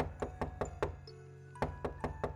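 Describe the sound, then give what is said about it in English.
Knocking on a door: four quick, evenly spaced raps, a brief pause, then four more in the same steady rhythm. Each knock is a sharp, solid thud with nobody speaking. “One New Year's Eve, I hear a knock on my door.”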